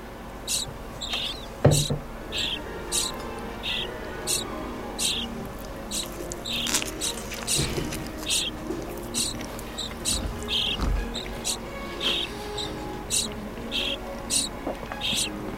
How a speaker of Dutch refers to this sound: Zullen we nu luisteren naar de spreeuw.